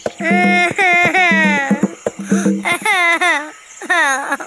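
Boots, Dora's friend, sobs and wails after hurting his leg, in several drawn-out, wavering bursts, the high pitch sliding downward, with short catches of breath between cries and a brief pause before the last one.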